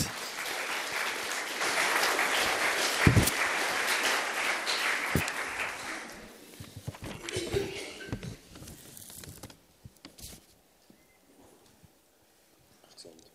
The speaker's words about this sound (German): Gebt ihm noch einen herzlichen Applaus.